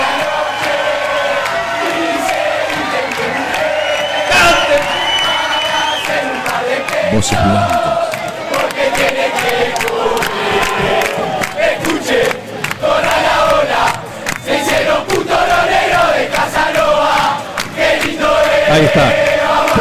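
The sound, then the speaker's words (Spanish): A large crowd, the 'niños cantores' of Amanecer de Fútbol, chants a football terrace song in unison, loud and sustained for the whole stretch, with rhythmic shouts and cheers rising over the dense wall of voices. “¿Qué pasa con los niños cantores de Amanecer de Fútbol? Apoyan, apoyan a Chinela, apoyan el reclamo.”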